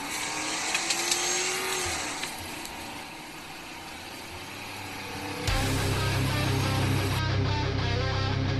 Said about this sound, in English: Now sit back, relax, and enjoy the orgasmic sound of a Crown Vic.